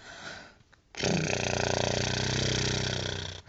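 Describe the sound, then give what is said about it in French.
A loud lip trill done as a morning voice warm-up exercise: lips flutter rapidly with breath, without voicing, in one steady buzzing stretch of about two and a half seconds, preceded by quiet breathing, with no talking. “Moi, le matin, l'un des exercices le plus efficace, c'est de faire des de faire vibrer mes lèvres sans son.”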